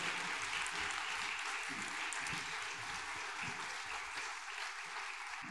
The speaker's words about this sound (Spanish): Entonces, por favor, un aplauso para las, las chicas. Gracias por el trabajo.